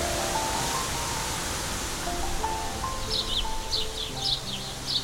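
Heard over a telephone, a flock of bluebirds twitters in bright, high, quick clusters over a steady hiss of wind blowing through trees, the chirping starting partway through and repeating in short bursts until the end.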